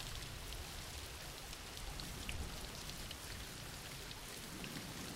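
Steady rain falls without a break, a soft, even hiss of countless drops with faint patter on surfaces, fairly quiet and constant, with no voices or other sounds.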